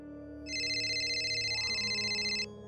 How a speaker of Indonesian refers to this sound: Suara telepon Mia yang keras terdengar dari belakangku.